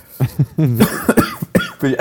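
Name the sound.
cough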